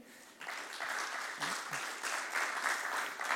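An audience claps together in a dense, steady burst of applause that starts abruptly and holds at an even, fairly loud level, with no voices standing out above it.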